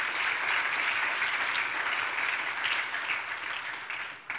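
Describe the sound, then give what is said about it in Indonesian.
A church audience claps for Jesus during an Indonesian-language sermon, a dense wash of many hands sustained for several seconds before tapering slightly at the end, with no speech over it. “Yang mengerti berikan tepuk tangan bagi Tuhan kita Yesus.”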